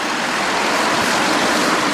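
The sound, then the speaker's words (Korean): Loud, steady roar of road traffic rushing past at a busy intersection by the Seongsu Bridge memorial tower, a dense continuous wash of engine and tire noise with no pauses and no voices. “일령탑은 오가는 차들의 요란한 소음 속 안내 표지판도 제대로 없는 곳에 정말 초라하게 세워져 있습니다.”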